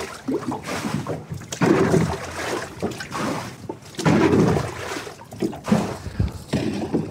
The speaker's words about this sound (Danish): Jeg tømmer lige båden for vand til at starte med. Det har jo regnet.